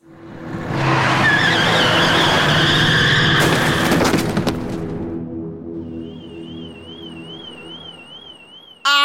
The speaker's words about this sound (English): He's at the top of the parking structure and Michael runs him over hard, hits him with his car.